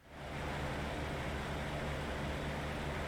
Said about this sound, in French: Non, c'est pas un bruit d'avion, c'est un bruit de fan.